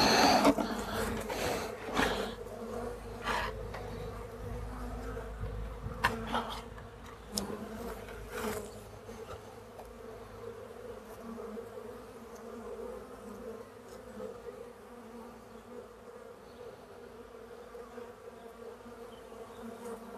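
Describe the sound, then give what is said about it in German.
A steady, droning buzz of many honeybees, with a few sharp knocks and thumps near the start as a box is stamped on the ground so the bees drop and can be tipped over, then the hum settles into a continuous layered drone. “Die Bienen fallen zu Boden und dann kann man sie einfach, einfach rüberkippen.”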